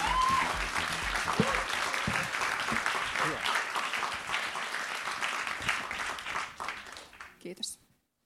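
applause

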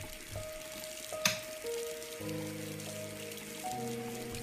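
water running

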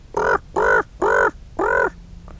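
ravens cawing

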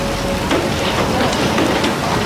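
heavy rain downpour

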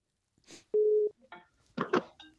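telephone ringing tone

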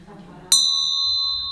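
small hand bell ringing

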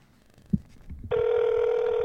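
outgoing phone call ringing

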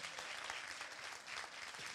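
audience applauding

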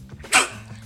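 sneeze

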